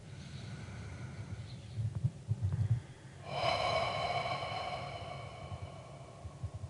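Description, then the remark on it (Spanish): Slow, deep breathing during a breathing exercise: a drawn-in breath followed by a long, airy exhale with a faint whistling edge, fading into quieter breaths afterward. No one speaks. “Trátalo, respire.”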